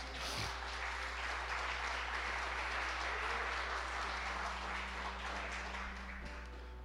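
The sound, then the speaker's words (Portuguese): A crowd claps steadily for several seconds as applause to God, a dense wash of many hands applauding together, with a low hum underneath and no talking. “Pode dar uma salva de palmas a Deus.”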